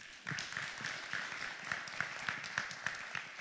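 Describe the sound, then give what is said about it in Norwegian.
An audience applauds, a steady dense wash of many hands clapping at moderate loudness, with brighter individual claps popping out in a fairly regular beat throughout. No one speaks. “Jeg syns vi skal gi henne en applaus.”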